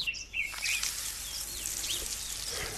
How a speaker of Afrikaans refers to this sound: Die rokket nie blaaslaai het water nodig. Laat ek net die tuinslang kry. so die kraan oopmaak. 'n Lekker water my plantjies.